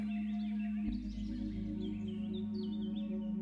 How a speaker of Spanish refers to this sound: Poco a poco, los sonidos de la naturaleza empiezan a arrollarte. Escuchas a los grillos, a los pájaros cantar y sientes una brisa de aire fresco rozar tu cara.